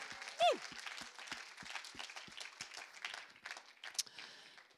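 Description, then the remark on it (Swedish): An evening audience in Övik breaks into steady, dense applause for the whole team, from worship singers to technicians to café staff, with a sharp descending whistle near the start and some cheering mixed into the clapping. “Sen tycker jag vi passar på att ge hela teamet här, allt från lovsångare till tekniker till kafépersonal, bara en stor applåd!”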